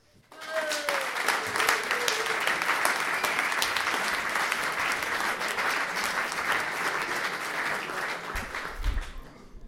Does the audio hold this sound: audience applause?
yes